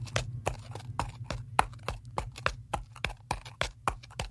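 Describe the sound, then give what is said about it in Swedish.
The hooves of the horse Lottie clip-clop as a knight rides it back along a long road, in a steady, even rhythm, roughly three sharp strikes per second, clear over a low rumbling background with no talking. “Riddaren osagt med sin nu nyvunna kunskap hoppar upp på hästen Lottie och rider tillbaks den långa vägen.”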